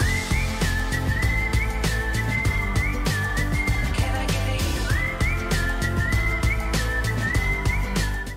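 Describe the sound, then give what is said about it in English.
A bright whistled melody rides over a full band with steady drums and guitar in an upbeat country-pop groove, the whistle line repeating short phrases near the front of the mix, no voices. “and there's definitely that that whistle thing that like is like really popular in country music right now.”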